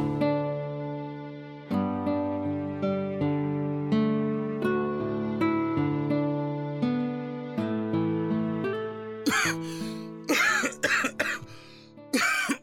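Sustained musical tones play for several seconds, then a burst of about five harsh coughs from a niece or nephew follows in quick succession, some doubled, over the fading music.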